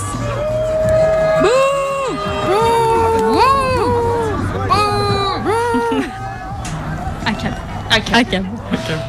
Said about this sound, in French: L'allégresse laisse place à des huées qui gagnent toute la nasse. Vous êtes indigné et vous voulez participer aux huées.